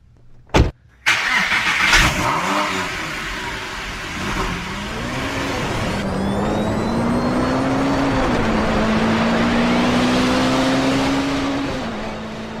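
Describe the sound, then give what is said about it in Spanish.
A DeLorean car engine starts with a couple of sharp mechanical clunks, then revs and hums steadily as the car pulls away, the rising engine tone sustained until the end. “Vámonos a subir al coche, vámonos.”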